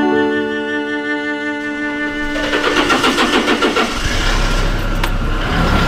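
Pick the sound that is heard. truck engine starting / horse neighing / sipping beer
truck engine starting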